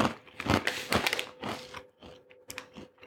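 Someone crunches on Brezli, small crispy-baked salted crackers from a tiny bag, a quick run of crisp, brittle bites and chews in an irregular rhythm, fairly loud and dry, with no talking.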